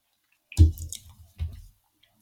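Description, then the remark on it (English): Wet chewing sounds right against a microphone: a loud squishy burst, a few smaller smacks, then a second chewing burst before fading to near silence. “Chewing still right.”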